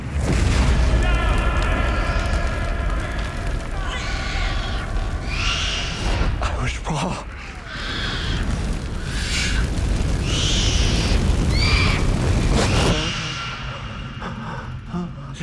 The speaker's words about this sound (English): He's like, What was that sound? Like, oh, it was a baby gorilla.